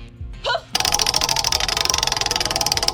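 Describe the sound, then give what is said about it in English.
A prize wheel is spun for a call-in game called the big three, with a rapid, steady run of loud ratcheting clicks that continue without slowing, after a brief vocal squeal at the start. “Go ahead, spin that wheel.”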